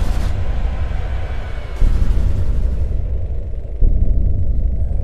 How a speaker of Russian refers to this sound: Взрывы не переставали разноситься, но уже вдали.